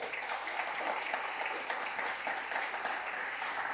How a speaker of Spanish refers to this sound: Dele fuerte el aplauso.